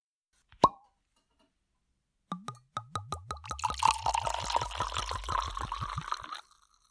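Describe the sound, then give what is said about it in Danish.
A single sharp cork pop, a short pause, then Barros Lacrima Branco White, a white port wine, glugging rhythmically from a bottle into a glass, the gurgles speeding into a steady pour before stopping. No one speaks. “Inden vi går i gang med at snakke om øh, de ting, vi skal i dag, så skal vi selvfølgelig have dagens portvin.”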